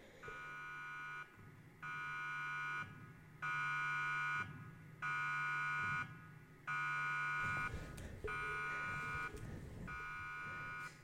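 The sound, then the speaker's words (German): A loud video game alarm buzzer blares in regular on-off pulses, about seven harsh tonal bursts separated by short gaps, with faint background noise and no voices. “Ja, der Alarm von dem Dings da hinten.”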